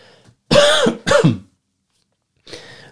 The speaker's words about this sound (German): Ich muss mal eben husten.